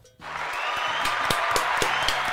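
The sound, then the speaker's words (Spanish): A crowd bursts into steady applause for the Junta (board) after a brief quiet start, many hands clapping densely with a few sharper claps standing out, sustained and loud throughout. “Bueno, ahí está, un aplauso a la Junta.”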